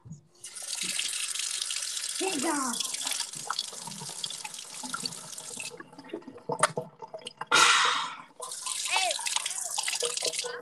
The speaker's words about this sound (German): Ich gehe jetzt kurz ins Bad wieso? Achtung, gleich kommt AS, äh, ASMR von Wasser.